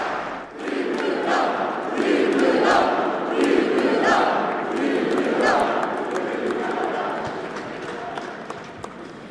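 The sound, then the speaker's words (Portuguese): A large crowd of party members, including Rui Rocha, applauds and cheers steadily as a party member stands to thank them, a dense wash of clapping and voices that stays loud throughout, with scattered shouts rising above the noise. “levanta-se agora o … para agradecer o apoio e os aplausos.”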